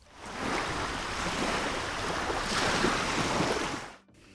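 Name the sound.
water sounds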